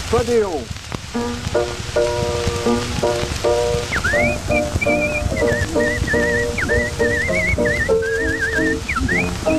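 A woman, a Folies Bergère performer, whistles a lively tune with quick trills and warbles over a steady instrumental accompaniment, all under a constant crackling hiss like an old record.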